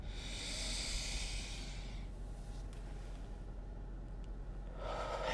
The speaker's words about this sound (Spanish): Respira un poco. Inhala.